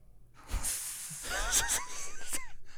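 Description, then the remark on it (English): A person mimics a wheezy, hissing laugh, breathy bursts of air with squeaky pitched glides, repeated in quick pulses, fairly loud. “Some people laugh like that.”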